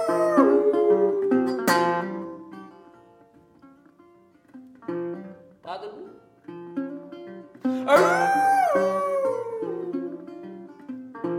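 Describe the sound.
Several wolves howl together in a chorus of long, wavering, overlapping tones that rise and fall, fading briefly midway before swelling again louder near the end.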